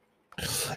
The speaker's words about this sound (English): And now my dog's barking. Love that. But, like, I don't know if y'all hear that in the background, but that is so ghetto.